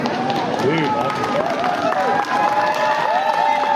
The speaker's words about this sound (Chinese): 围观民众则为警方的坚定执法一致拍手叫好。